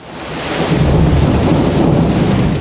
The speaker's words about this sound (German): ein Gewitter. So ein Gewitter, wie es nur gerade alle paar Jahrzehnte gibt. Die Strassen, die Unterführungen, Felder, alles überschwemmt und das Wasser steigt und steigt.